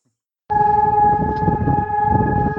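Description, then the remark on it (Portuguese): A siren blares out abruptly after a brief silence, holding a steady, loud droning tone over a low rumble of city noise in the middle of the city of Ljubljana, with no one talking. “Olha, filhas, começou assim do nada uma sirene que eu espero que não seja a sirene do nosso podcast aqui no meio da cidade de Ljubljana.”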